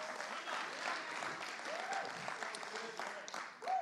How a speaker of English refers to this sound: Christian, if you're not clapping, you should be clapping because God picked you to bring the Holy Spirit into this earth.